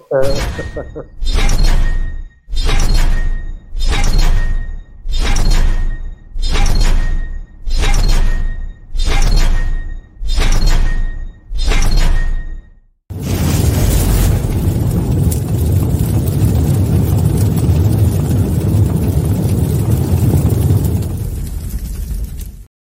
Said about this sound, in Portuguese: Malta, vou pôr o genérico. Yeah, põe o genérico, vou pôr o genérico, até já.